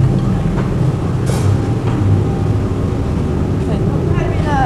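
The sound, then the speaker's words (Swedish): A metal shearing machine used for cutting sheet-metal plates runs in a workshop, giving a loud, steady mechanical roar with a few brief high squeals near the end and muffled voices underneath. “Det här är en sån här klippmaskin så jag kan klippa mina plåtar och, och bocka och ja, borra hål och allt vad jag behöver.”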